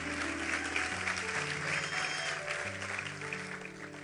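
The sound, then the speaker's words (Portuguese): A crowd claps steadily and continuously for the Lord, a dense wash of applause, with sustained keyboard chords playing underneath throughout. “É para o Senhor, pode aplaudir.”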